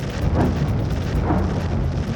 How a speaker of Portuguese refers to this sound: Assustadas na porta de casa, moradoras de Luhansk, no leste da Ucrânia, ouvem os bombardeios do lado de fora. Os russos estão atacando a cidade, diz uma delas.